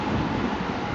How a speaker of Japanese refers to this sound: あちょっと電車が通りますすいません